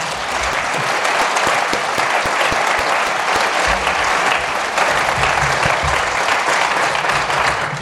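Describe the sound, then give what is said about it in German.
An audience at an evening event of the Krimifest München claps steadily for several seconds, a dense, even wash of many hands with no pauses and no voices rising above it. “Okay, und jetzt dürfen Sie auch gleich nochmal klatschen, denn Lisa Wagner hat uns ganz wunderbar in die isländischen Welten entführt.”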